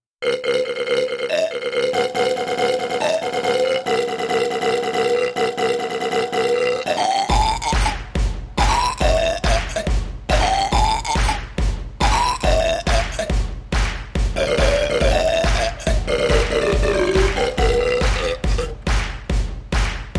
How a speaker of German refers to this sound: Kannst du daraus bitte ein, ein, ein, ein … Rübs machen? Ja, Rülps, Rülps.